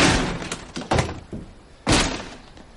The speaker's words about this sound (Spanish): Ibarra se aparta y abre la puerta de una patada.